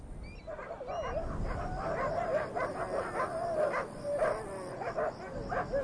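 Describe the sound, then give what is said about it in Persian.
Several dogs, released by people into a mined area to clear it, bark and whine continuously, with high yelping and whimpering mixed into a steady chorus over a noisy background. “بعضی از آدمای بد این سگار رو توی این مناطق مین آزاد میکنن تا پاسازی بشه”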